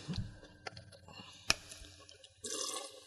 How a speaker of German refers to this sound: Ein Spritzer Zitronensaft da rein. Den haben wir hier.